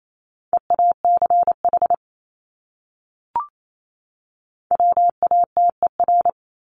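Rapid Morse code at 28 words per minute sending one of the 200 most common words: a steady, high-pitched tone keyed into quick dots and dashes, in two bursts separated by a pause and a single short click. No voices.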